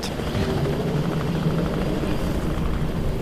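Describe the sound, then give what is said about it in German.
A helicopter carrying several geologists searching for oil flies over the Arctic Circle in 1953, above frozen, almost treeless tundra at minus 40 degrees; its low rotor thump and engine drone form a dense, continuous rumble with a faint rhythmic chop running through it. No one speaks. “1953 fliegen mehrere Geologen in einem Hubschrauber über den Polarkreis herum.”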